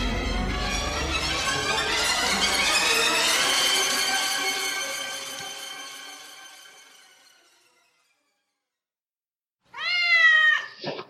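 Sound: cat meowing at night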